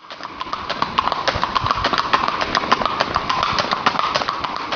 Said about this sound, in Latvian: Es saku, zirgs vai steps kaut kāds. Bet, principā, Nē. tas nav tik svarīgi, jo atbildēs jums pateikšu priekšā. Tas ir zirgs!